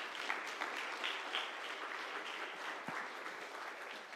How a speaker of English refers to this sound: would you give my lovely ladies a round of applause?